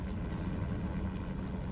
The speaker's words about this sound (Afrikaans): Luister. Hoor jy dit nie? Dis 'n vliegtyg of 'n helikopter of iets. 'n Helikopter. 'n Vliegtyg klinkie so nie.